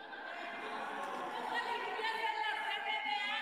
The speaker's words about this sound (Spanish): Le pido silencio, favor. por favor. Permítame, senadora, si quiere usted gritar y quiere usted alzar la voz, hágalo con todo gusto, pero pida el uso de la palabra.